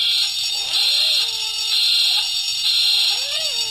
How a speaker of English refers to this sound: I'm going to have to get my buzzer out again.